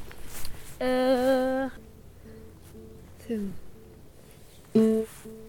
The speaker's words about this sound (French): c'est le bruit de l'enceinte Bluetooth qui essaie de se connecter au portable de Baptiste